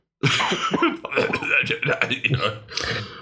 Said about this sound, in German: auch wenn wenn der … im Hintergrund sich schon rumdruckst und hustet